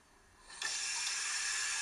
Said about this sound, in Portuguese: Que é tipo, já, está a pingar daqui quando eu ligo a torneira.